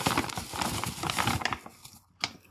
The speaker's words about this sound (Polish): Najpierw biorę mąkę. Cały kilogram mąki wsypuję do miski.